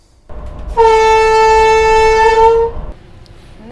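A train horn sounds one long, steady blast of about two seconds, loud, with rich harmonic tones, over a low rumble of a train in the background, a safety signal warning people that a train is coming, on the Ofotbanen railway.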